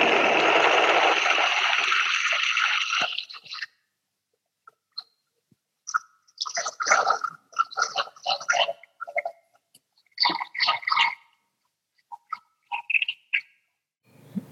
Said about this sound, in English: This is like a meditative moment for me, everybody. I'm just watching this corn broth ripping that blender.